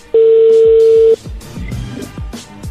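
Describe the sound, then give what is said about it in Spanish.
A loud, steady electronic telephone tone signalling an incoming call sounds once for about a second at a mid pitch, then cuts off, leaving quieter background noise with a few soft low thumps. “Ahí, ahí entró la llamada, permíteme.”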